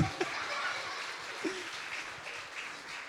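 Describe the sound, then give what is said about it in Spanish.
A crowd in a church claps steadily for young people in a dense, continuous patter of applause that fills the space, with a few faint voices and brief cheers rising through it. “Brindémosle un fuerte aplauso a nuestros jóvenes.”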